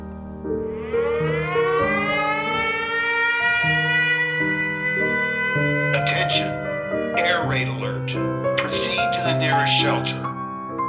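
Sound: air raid alarm siren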